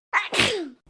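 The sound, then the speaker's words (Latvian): A single loud sneeze: a short breathy intake followed by an explosive burst that trails off into a falling, wheezy tail. “Ja nāk šķaudiens, neaizturam to, lietojam kabatas lakatiņu vai salveti, vai arī, ja tie nav pie rokas, tad vismaz aizliekam mutē priekšā elkoni, lai kaut cik pasargātu apkārtējos no savām šķavām.”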